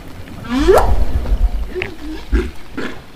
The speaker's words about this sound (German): stellt sie fest, die Wale sagen wieder Wupp. Okay, das kennen wir ja. Wupp. Haben wir ja vorher schon gehört. Ja, aber sie sagen es leise.